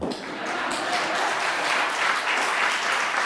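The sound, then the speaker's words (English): Steady audience applause fills the whole stretch, a dense wash of many hands clapping at an even, moderately loud level with no voices standing out above it. “Uh, yes, you can applaud.”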